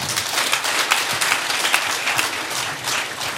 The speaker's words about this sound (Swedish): Jag tänker, ja det är värt en applåd.